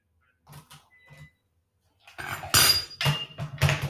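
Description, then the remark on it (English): Knocking and rattling at an office door: a couple of soft taps, a pause, then a burst of louder, sharp clattering knocks, with no one speaking. “All right, it's the door.”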